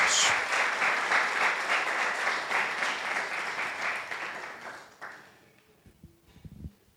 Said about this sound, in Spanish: Entonces, ¿qué tal para que no se me queden allí como mirando? Le da un aplauso a la presencia y a la palabra de Dios.